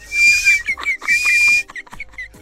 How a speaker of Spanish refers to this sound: Luego, es que le sale un chiflito entre el bigote.